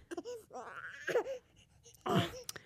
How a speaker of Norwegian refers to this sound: Oh sykt irriterende at babyen min griner.